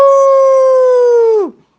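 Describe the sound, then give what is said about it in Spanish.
A person imitates a rooster's crow in one long, steady, fairly high-pitched call that holds loudly for over a second before sliding down in pitch and cutting off. “¿Y cómo hace el, gallo? ¡Cucuruyú!”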